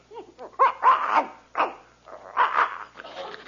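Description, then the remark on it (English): A dog, wagging its tail, barks and growls in a run of short, gruff bursts, about five in a few seconds, with brief pauses between them and no one talking. “The dog's wagging his tail.”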